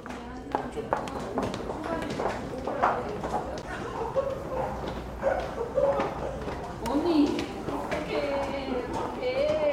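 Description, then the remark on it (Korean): Brisk footsteps from many commuters heading home at 7 p.m. tap and click across a hard floor, mixed with overlapping crowd chatter, laughter and occasional voices, all echoing in the busy indoor City Hall subway station on Line 2 in Seoul. “그런데 발걸음들이 조금 더 경쾌하네요. 말소리, 웃음소리도 들립니다. 저녁 7시 퇴근길의 소리거든요.”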